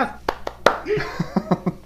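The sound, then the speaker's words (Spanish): A handful of sharp hand claps ring out at an uneven pace, some landing over a speaking voice, more like a few scattered claps than full applause. “ya saquen los aplausos.”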